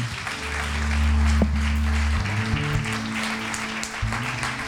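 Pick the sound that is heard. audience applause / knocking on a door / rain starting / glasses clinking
audience applause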